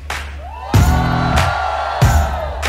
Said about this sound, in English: A big round of applause, ladies and gentlemen, to the panel on stage.